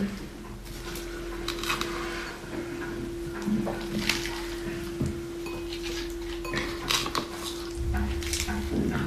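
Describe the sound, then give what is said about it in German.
Ingredients including banana are pushed down inside a small blender jar: scraping, rustling and occasional clinks of a utensil against the container, over a steady low hum, with no talking. “mein Mixer hier ist relativ klein, deswegen drücke ich das immer mal wieder so ein bisschen nach unten.”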